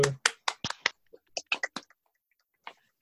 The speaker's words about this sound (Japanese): 京都でみやびに、えー、AI を語る会、リモート第2回です。拍手。